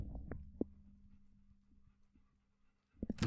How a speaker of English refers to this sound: My dogs are in here in the room right now and they are panting. I don't know if you can hear them. Listen.